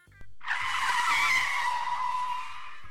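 A car brakes hard, its tires letting out a loud, sustained screech that starts abruptly and holds steady for over two seconds before easing slightly, with a low engine rumble underneath.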